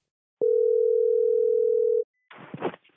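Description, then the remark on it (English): A telephone ringback tone sounds once on a call to author Jasmine Guillory, a steady electronic hum lasting over a second and a half, followed by a brief muffled clatter as the line seems to pick up. “And finally, I managed to get her on the phone right as she wrapped up her book tour for The Wedding Party.”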